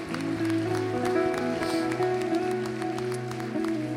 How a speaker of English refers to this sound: Come on, give Jesus one more hand clap of praise today.